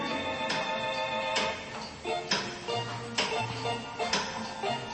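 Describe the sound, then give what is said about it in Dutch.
A pendulum clock ticks steadily, each sharp tick landing about once a second, clear over a faint, constant background hum. “gaat keihard hoor, die klok.”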